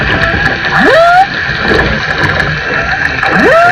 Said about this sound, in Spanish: Eh, y lo, lo, hermoso es eh, que tenemos la tecnología para poder escuchar las ballenas que antes no la teníamos. Y eso se puede vivir en República Dominicana.